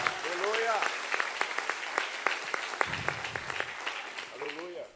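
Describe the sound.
An audience at a church service applauds God with steady, dense clapping, sharp individual claps standing out through the roar, while raised voices call out over it at the start and again at the end.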